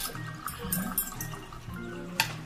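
A cocktail being stirred: soft liquid swirling with a few light glassy clinks, including one sharper clink near the end, all fairly quiet with no talking.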